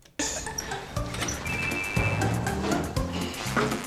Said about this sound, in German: Mich stört nur in dieser Musik eine Sache, und zwar ich höre immer ein Telefon im Hintergrund. Vielleicht magst du mal kurz reinhören.